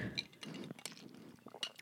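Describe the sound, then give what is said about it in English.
A coffee mug clinks a few times in quick succession, bright glassy taps with a soft slurp or rustle between them, fairly quiet with no talking. “I was got to take a little bit of a sip of my coffee.”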